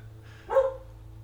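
A single short dog bark rings out over a low steady hum, fairly close and moderately loud, then fades back to quiet background.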